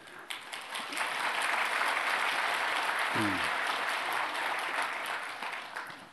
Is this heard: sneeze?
no